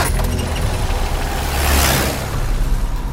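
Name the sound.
car driving and stopping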